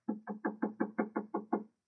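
Eight quick, evenly spaced knocks on a door in a steady rhythm, fairly soft and close, with no voices.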